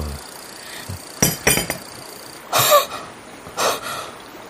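A coffee cup is set down on a hard surface with a clink, part of a few sharp, bright knocks of crockery spaced over several seconds, with no one speaking.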